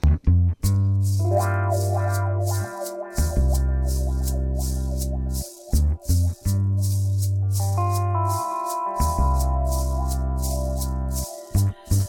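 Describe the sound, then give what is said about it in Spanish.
A Mexican song opens with a loud instrumental intro: deep sustained bass notes, a bright melodic line above, and steady percussive strikes in a regular rhythm, with no singing yet. “así que les voy a poner una cancioncita, una pequeña pausa musical y volvemos en unos minutitos, así que disfruten la canción”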